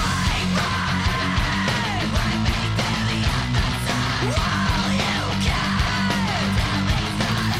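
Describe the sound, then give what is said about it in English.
A loud, dense heavy music track by a supergroup, premiered exclusively, plays continuously, with thick distorted guitars and a driving low end under harsh yelled vocals that rise and fall in pitch. “Supergroup … shares uh, … this track that we're listening to now.”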